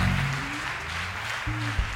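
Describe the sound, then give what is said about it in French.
A church audience applauds steadily and densely, acclaiming God for the life of his servant, with sustained cheering voices rising under the clapping throughout. The crowd sounds full. “Il n'est pas dit d'applaudir.”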